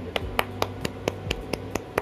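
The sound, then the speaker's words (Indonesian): Nine quick hand claps in a steady, even rhythm as part of a call-and-response cheer for a storytelling program, each a sharp crisp smack, over a faint low background hum with no talking. “Kalau saya bilang mau cerita, hmm, pendengar di rumah bilang mau cerita, ya dengerin aja, tepuk tangan, oke?”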